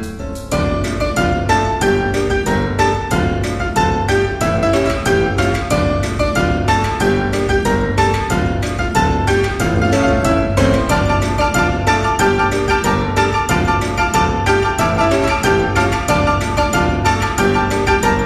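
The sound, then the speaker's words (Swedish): A bright, upbeat instrumental outro theme, a song by a musician, plays steadily at full volume, with a driving rhythmic beat and sustained melodic notes, and no voices throughout. “Musiken ni har hört var ….”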